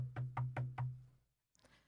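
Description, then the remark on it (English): Four quick, evenly spaced knocks on a door, solid with a hollow resonant thud, followed by a short pause and a faint rustle. “So um, the next morning, you hear a knock on the door”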